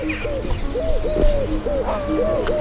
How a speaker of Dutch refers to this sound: Wat valt jou op? Ja, je hoort de vogels fluiten.